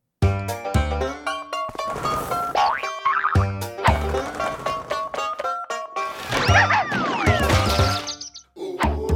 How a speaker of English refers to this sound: Um, maybe we could listen to the uh, the wonderful theme tune that you wrote for that, and then uh, we can we can talk more about it.